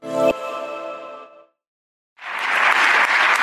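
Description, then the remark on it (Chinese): A bright musical sting rings out and fades, then after a short silence a dense, steady wash of applause from many clapping hands begins and stays loud as members of the European Parliament stand together in a standing ovation. “欧盟议会成员们全体起立鼓掌。”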